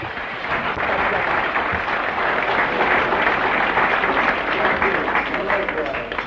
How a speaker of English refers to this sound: Give him a clap.